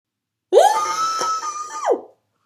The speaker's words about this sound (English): I have to go scream into the void for a second.